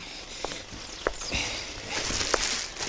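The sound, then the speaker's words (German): Someone rummages through a rubbish bin in a parking lot, packing cigarette butts into a bag: steady crinkling and rustling of bags and packaging, broken by a few sharp clicks and knocks, with no voices. “Was wühlst du denn im Abfalleimer herum?”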